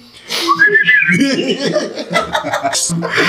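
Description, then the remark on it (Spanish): A brief whistled phrase with a rising, wavering pitch, fairly loud, followed immediately by chuckling laughter and breathy snickers. “Empezaba a silbar que estaba tocando.”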